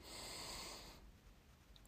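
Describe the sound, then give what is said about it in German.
A deep, airy breath drawn in for about a second, then fading into near silence, with a faint click at the very end. “Wir atmen tief ein”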